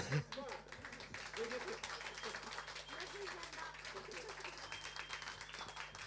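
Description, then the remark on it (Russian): A steady crowd applause for jazz musicians playing standards at a jazz house, dense rapid clapping that holds at an even level for several seconds, with a few voices murmuring underneath. “Я не знаю, если, если мы будем очень сильно аплодировать, ведь э, стандартов же очень много.”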